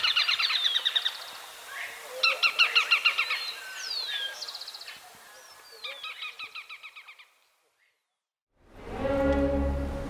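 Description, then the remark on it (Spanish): A slaty finch sings a series of high, rapid trilled phrases with short gaps between them, clear against a quiet background, then falls silent before a louder, lower sound cuts in. “El trino del rastrojero Pizarra forma parte del Banco de Sonidos de Aves Colombianas recopilado por el Instituto von Humboldt y la Universidad de Cornell.”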